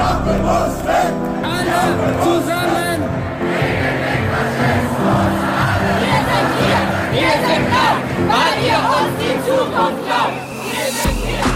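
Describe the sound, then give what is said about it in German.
A large, loud crowd of protesters shouts and chants together, many voices layered into a dense, continuous roar that stays intense for the whole stretch. “Und am Anfang geht es bei Katrin Wosch und mir um ein Land, in dem derzeit viel protestiert wird.”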